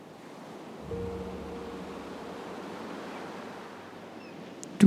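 Steady ocean surf washes continuously onto a beach, a broad rushing hiss with a low rumble joining in after the first second. No one speaks; a brief sharp knock sounds right at the end.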